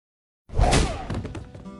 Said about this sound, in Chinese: 林峰一拳打在齐英博肚子上，一把夺过银行卡，冷冷盯着捂着肚子蹲在地上这个人